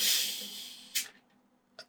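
A close, fizzing hiss as a drink is opened, loud at first and tapering off over about a second, followed by two brief clicks in a quiet room.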